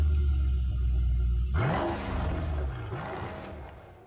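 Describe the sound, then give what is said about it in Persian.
A large black Mercedes-Benz car gives a low engine rumble that suddenly bursts into a loud revving roar climbing in pitch, then revs again as the car starts and pulls away. It is fairly loud, with no voices. “این ماشین خوبه استارت زد و راه افتاد”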